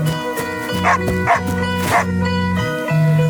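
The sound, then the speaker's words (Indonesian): A dog barks three times in short, sharp bursts, spaced roughly half a second apart, over a steady, tonal musical backdrop that continues throughout. “Sejak kecil, ia selalu ditemani oleh ayahnya yang merupakan seekor anjing yang sangat setia.”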